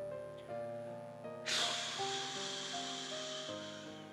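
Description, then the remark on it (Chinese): In a children's story, an elephant takes a deep breath and then blows a strong, sudden gust that blows all the hornets off a hippo: a loud, breathy whoosh bursts in and slowly trails off, over steady tonal background music. “对了，他呀把马蜂。全都给吹走了。”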